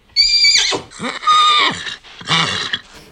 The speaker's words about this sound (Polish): O, już się rży, ogier ogierem. Ale jeszcze piany, jeszcze zmęczył się mocno bardzo swoją podróżą.